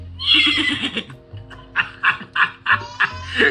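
A horse neighs loudly, a long shrill whinny that breaks into a series of rhythmic, shuddering snorts and calls, with no one speaking.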